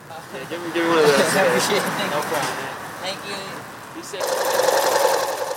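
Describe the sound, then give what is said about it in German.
A sewing machine runs in quick, steady bursts of rapid stitching as homeless people sew fabric into face masks inside a church facility in Washington. Its mechanical whir sits under voices at first, then grows louder and more continuous toward the end. “Die Leiterin der Einrichtung hat Nähmaschinen und Stoff besorgt.”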